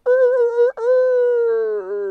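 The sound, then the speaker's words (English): A person imitates a rooster crowing with a loud, drawn-out vocal call in two bursts, a short one followed by a longer sustained cry that wavers at the end. “sure enough, those 15 chickens were running around and singing and cackling, and the rooster, he was, er,”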